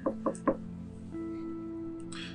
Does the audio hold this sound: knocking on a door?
yes